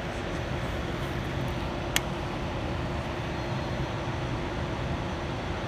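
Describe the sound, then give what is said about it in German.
An ICE high-speed train pulls into a station with a steady low rumble and broad rushing noise throughout, broken once by a brief sharp click. “so, da kommt jetzt unser ICE vorgefahren.”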